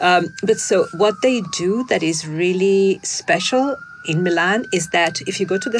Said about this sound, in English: Sorry about the sirens, you know, a, a real New York bit.